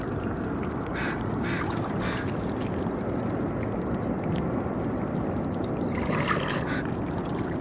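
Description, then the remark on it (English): Faint clicking, soft trickling and sucking of water meeting barnacles, in scattered little bursts, set against a steady low roar of city noise. No one speaks. “The tiny clicking sounds that you hear are the meeting of the water and the barnacles. It trickles and clicks and sucks and The city is roaring around these tiny sounds, but it's not masking them.”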